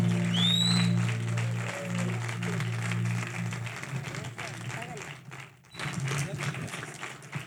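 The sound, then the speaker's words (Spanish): A church audience applauds to welcome a preacher, with dense, steady clapping that runs for several seconds over a low, constant hum, thinning briefly near the end before picking up again. “¿Y por qué no lo recibimos con un fuerte aplauso?”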